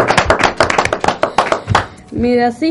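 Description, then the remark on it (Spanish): A quick run of sharp, rhythmic hand claps welcoming special guest Fabricio Berto, a former NBA basketball player, on a program, roughly a dozen at a steady pace, stops abruptly, and then a voice begins speaking. “hoy tenemos un invitado muy especial de Fabricio Berto, que le damos un aplauso a... A Fabri.”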